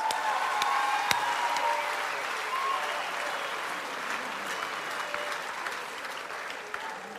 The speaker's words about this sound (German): Aber noch einen großen Applaus fürs Team, was hinten drin ist. Danke euch.